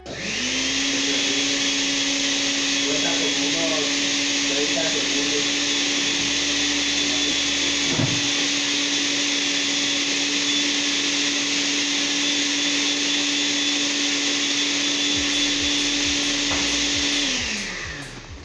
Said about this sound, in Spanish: Ya que tengamos la licuadora, metemos las nueces y almendras, le echamos un poquito de leche y café junto con la proteína. Y ahora sí viene lo bueno, préndele la licuadora por unos minutos y deja que se muela todito. Y que chille.